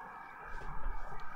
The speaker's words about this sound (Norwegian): Gutta hører du toget? Åh. Hæ? Ja, toget. Det er ikke sikkert du hører det. Ah. Vi hører det i klippen.